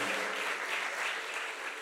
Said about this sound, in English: Put your hands together for this panel. It's been it's been eye-opening. Very yeah, come on, clap for them. Very eye-opening.